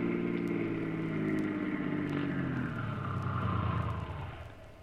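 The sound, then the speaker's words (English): A car engine hums steadily as the vehicle drives, its pitch rising and falling with speed, before the sound eases off and fades at the end. No one speaks. “Start up. Take the next side road off the highway.”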